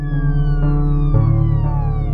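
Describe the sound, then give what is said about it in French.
A loud, sustained ambulance siren with a steady droning tone that slowly slides lower in pitch, heard on its own with no voices, as rescuers take wounded David Faraday by ambulance to the hospital in Vallejo. “David Faraday est vivant quand les secours l'embarquent dans une ambulance.”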